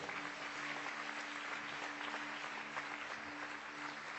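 An audience applauding the Lord together, a steady dense wash of clapping that holds at an even level for several seconds with a faint low hum beneath.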